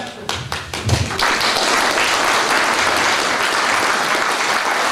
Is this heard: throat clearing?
no